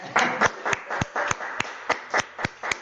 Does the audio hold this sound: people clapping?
yes